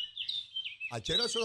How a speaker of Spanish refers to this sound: Mira, el sonido de los pájaros. Así va, cuando usted va a un meeting que están todos esos políticos, ese es el sonido de los pájaros. Mírelo ahí, mira, qué bonito ese sonidito.